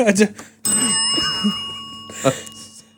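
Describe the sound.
A single bell is struck once and rings out clearly, its bright tone sustaining and slowly fading over a couple of seconds, with brief voices just before and near the end.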